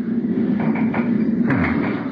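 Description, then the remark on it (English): A few quick rattles and knocks of the handle of the locked door to the pilot's cabin being tried, pulled without opening, over a steady low engine drone that fills the background. “door to the pilot's cabin's locked.”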